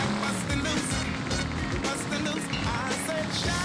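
A video game car's engine drones steadily while its tires rattle and clatter over bumpy, uneven ground as it cuts through railroad tracks, a continuous loud rumble with scattered knocks throughout.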